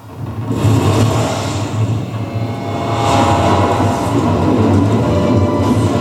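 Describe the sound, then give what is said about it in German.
A heavy train with a locomotive at full speed rumbles steadily over a bridge, a loud, continuous roar of wheels and low mechanical droning that swells slightly midway and holds without pause. “Auf diesem Gleisstück ist eine Vollspeed laufende Lokomotive”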